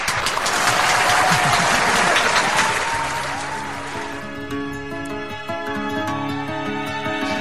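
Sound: audience applause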